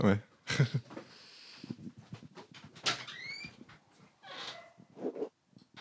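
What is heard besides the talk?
dog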